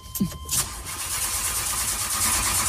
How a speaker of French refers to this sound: Je suis devant la fusée qui va décoller. Vous entendez les moteurs derrière moi.